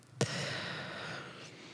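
deep exhale

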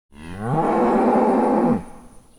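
cow mooing

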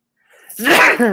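sneeze

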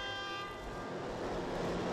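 car horn honking

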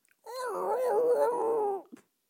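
dog growling

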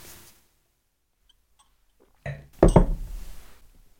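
glasses clinking

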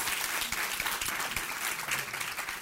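audience applauding

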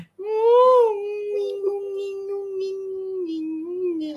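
cat meowing

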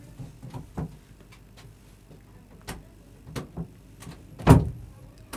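door being closed

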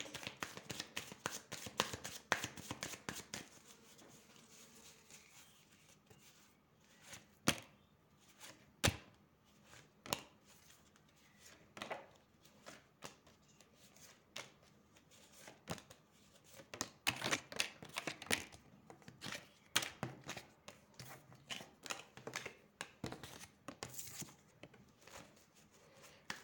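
shuffling tarot cards

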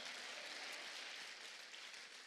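audience clapping hands

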